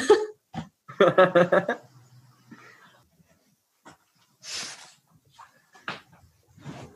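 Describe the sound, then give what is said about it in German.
A few breathy, hissing bursts like someone blowing their nose into a tissue, spaced apart by quiet pauses, after a short stretch of voiced, laugh-like sounds at the start. “Ich, ich muss jetzt unbedingt Nase putzen.”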